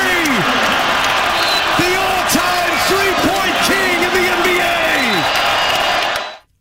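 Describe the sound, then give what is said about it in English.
A packed arena crowd at Madison Square Garden in New York City roars loudly and continuously after Stephen Curry makes a record shot in an NBA away game, with scattered shouts and whoops rising above the din, sustained for about six seconds before cutting off abruptly. “And so the best part of that clip to me is that's not a home game, the crowd going wild like that.”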